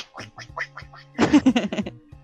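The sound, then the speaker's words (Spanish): A person imitates a duck, giving several short nasal quacks in a steady rhythm, then a louder, faster burst of quacking. “Y eso sí deprime, porque luego vas con tus tenis, este, no tenéis de tela, unos Converse, unos Vans, los que gustes, y se te mete todo el agua y ahí vas con, un pato.”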